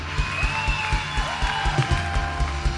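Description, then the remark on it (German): A crowd at an evening worship service claps and cheers steadily, giving God applause, the dense applause filling the space while band music with a regular thumping beat plays underneath. “Come on, können wir Gott nochmal einen riesen Applaus geben heute Abend?”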